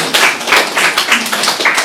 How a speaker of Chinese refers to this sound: 再一次掌声吧，非常好。